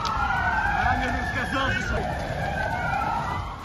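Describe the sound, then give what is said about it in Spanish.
A loud air raid siren wails across the streets of Kyiv, Ukraine, its tone slowly rising and falling over a steady wash of street noise and traffic rumble. “Y este es el sonido que ha vuelto a las calles de Kiev.”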